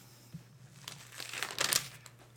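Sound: bible pages turning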